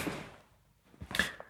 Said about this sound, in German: Ich sitze übrigens auf so einem Karlskrona Baststuhl von Ikea, deswegen knirscht das so. Ich hoffe, das stört nicht zu sehr.